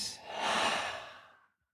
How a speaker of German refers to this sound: Und vielleicht nimmst du mit mir einen Atemzug